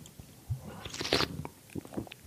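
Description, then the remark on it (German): A drink being gulped down: several wet swallowing sounds and mouth clicks in an uneven rhythm, with no talking. “Warte, hör, Nicht hör, gluck, gluck.”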